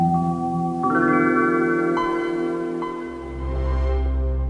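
A Windows operating system startup chime: layered synth tones swell through a few shifting chords, then fade into a low, warm rumble. It plays alone and clear, with no voices.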